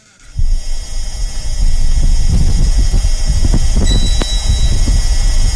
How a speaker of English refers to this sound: It's just the wind, though. But the eh is the machine. No, What? it is. That's the sound of the rover.